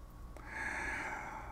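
A single drawn-out snore, a raspy, breathy inhale that swells after a brief pause and holds steady to the end, with no talking.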